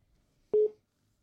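A single short electronic telephone beep, like a dialing key tone, sounds once, clear, in an otherwise quiet moment with no talking, as a phone call to a guest is being placed.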